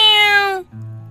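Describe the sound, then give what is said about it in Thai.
A single loud cat meow from a cat standing beside a fence, with a bright, harmonic tone that slides slightly downward and ends abruptly, followed by a brief low murmur. “เอ๊ะนั่นเสียงแมวที่ไหนนะ่ะ นั่นไง มีเจ้าเหมียวตัวหนึ่งยืนอยู่ที่ข้างรั้วนี่นา”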